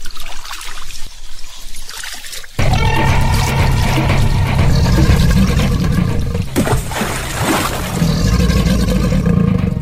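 Softer trickling water opens, then a loud, steady rush of flowing river water with rumbling churn takes over and continues, with occasional splashes and surges, no voices, as a raft travels along the river.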